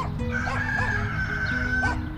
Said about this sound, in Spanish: En la casa de las Ruiz canta el gallo pinto y despierta a las hermanas